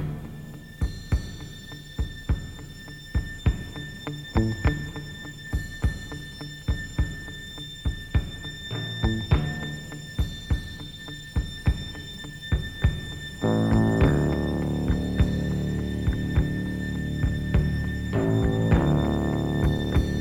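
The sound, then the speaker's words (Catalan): An instrumental pop song intro plays with a steady beat and sustained synth tones, then fills out with fuller instrumentation partway through. No voices. “Això mateix, i em sembla maquíssima la cançó, és un hit.”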